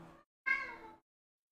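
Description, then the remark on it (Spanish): A cat named Michi meows, a brief first call followed by a longer, drawn-out meow that slides downward in pitch, with no voices around it. “Pará, Michi.”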